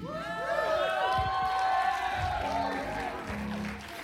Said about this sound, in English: You know the people that are clapping right now? The people that have been praying. The people that have been winning souls.